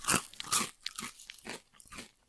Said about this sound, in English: Oh yeah, there's a lot more. Uh, there's a lot more molar action here. There's like mastication going on.